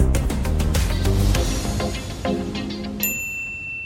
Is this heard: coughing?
no